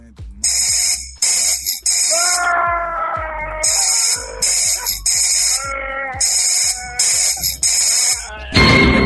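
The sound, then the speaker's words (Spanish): A squeaky chickpea toy called Garbanzo is squeezed over and over, letting out loud, shrill, wavering squeals in bursts with short gaps between them, and a breathy hiss comes in right at the end. “Ah, ¿te gustó cómo grita el garbanzo?”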